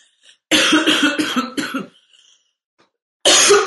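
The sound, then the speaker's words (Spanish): A loud fit of several rapid coughs in a burst, followed by a pause and then another sharp cough at the end. “así que perdón si, estoy tosiendo, pero bueno, aquí estoy.”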